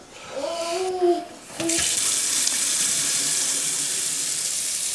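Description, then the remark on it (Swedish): A short squeaky whine, then a water tap in a home on Björnvägen in Isnäs is opened to see what the water looks like, and water gushes out in a steady hiss that continues evenly to the end. “vi ska öppna en vattenkran och se hur det här vattnet ser ut.”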